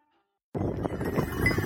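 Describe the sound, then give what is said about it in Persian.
After a short silence, a herder's flock of sheep and other farm animals, including cows and camels, breaks into a dense, fairly loud chorus of overlapping bleats, with faint clinking of bells mixed in. No one speaks. “میره پیش یک نفری که از قضا میبینه شطور هم داره گوسفند داره گاو داره”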